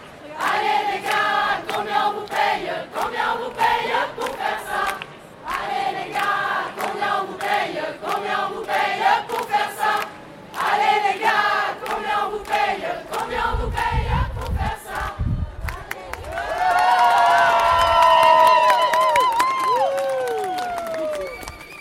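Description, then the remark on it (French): Crowd at a demonstration chanting rhythmic slogans in loud, repeated bursts with short pauses, then cheering and shouting rising over a thumping drum toward the end. “Et on vient d'entendre notre deuxième petit bouquet de voix du soir, Le plaisir dans les luttes, à Donf dans la manif.”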